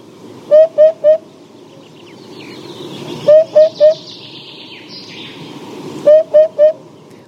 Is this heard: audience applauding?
no